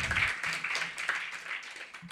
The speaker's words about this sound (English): Uh, yeah, let's give, uh, let's give all of that a round of applause.